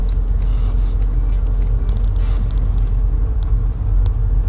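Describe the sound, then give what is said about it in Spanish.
A hybrid car running in hybrid mode, its engine giving a steady, loud low rumble with a constant drone and a few faint high ticks and clicks over it, no voices. “Ahora mismo el coche se encuentra en modo eléctrico menos, no, ya no, ya ha saltado el modo híbrido.”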